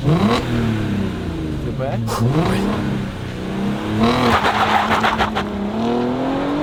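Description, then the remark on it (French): A Porsche Cayenne SUV, a car from Russia, roars through a hard launch-control start on the road, its pitch climbing steeply, then dropping briefly at each gear change before surging again, loud, with voices talking underneath. “Est-ce que tu veux un launch control oh, bah, J'espère bien, ouais”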